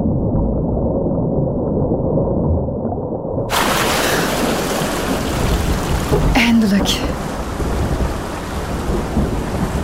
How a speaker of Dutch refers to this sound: Maar daar stormt het, hard.